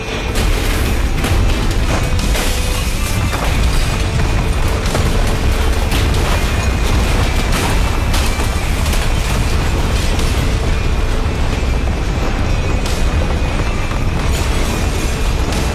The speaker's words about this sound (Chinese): 一声巨大的爆炸声在废弃的医院响起。